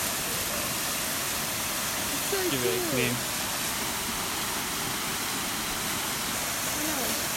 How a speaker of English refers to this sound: What a beautiful waterfall. Yeah. I love how like triangular it is. Yeah. It's just coming out of a really like thin point at the top gushing like a hose and then it falls down all of these like rocks and all this moss down slowly getting broader